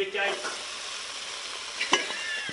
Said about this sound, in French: Alors, alors attendez, je vais, vous faire, écouter le, crépitement des cailles.